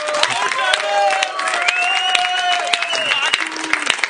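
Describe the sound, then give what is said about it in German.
A church audience calls out "Hallo" together to greet people following the sermon over the internet, many overlapping voices rising in a loud, sustained chorus with some scattered clapping and whoops mixed in. “Also begrüßt doch mal alle, die übers Internet die heutige Predigt verfolgen.”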